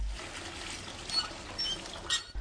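Water runs steadily from a tap into a bath, a soft continuous hiss with a few faint high squeaks mixed in. No one speaks.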